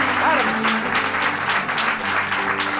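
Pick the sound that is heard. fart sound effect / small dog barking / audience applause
audience applause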